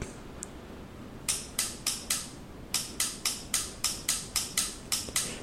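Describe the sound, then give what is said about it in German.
A rotary dial on the top of an antenna device is turned to switch on the antenna and set the reception strength, with a series of crisp, evenly spaced clicks, first a short run of four, then a longer steady run, fairly quiet with no talking. “Da macht es so ein, so ein Klickgeräusch und das ist dazu da, um die Antenne einzuschalten und um die Empfangsstärke einzustellen.”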